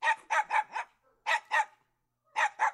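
A dog barks in quick bursts, four sharp barks, a pause, two more, then another pair, loud and close with no other sounds around.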